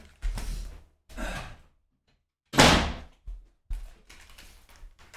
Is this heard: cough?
no